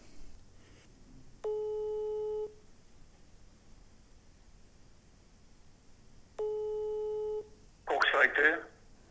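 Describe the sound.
Two long, steady ringback tones about five seconds apart, like a phone ringing on the other end of a call, followed by a brief burst of a voice answering.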